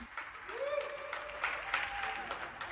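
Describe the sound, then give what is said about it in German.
Many people clapping together in a dense, continuous patter of applause for nurses and carers working in hospitals and care homes during the Corona crisis, with a thin sustained tone rising and holding beneath the clapping for a couple of seconds. “Ganz ehrlich, ich finde, das macht 1000 Euro weniger im Monat dann halt doch nicht wett dieses Klatschen da, das galt unter anderem Pflegerinnen und Pflegern, die während Corona im Krankenhaus oder in Pflegeheim gearbeitet haben.”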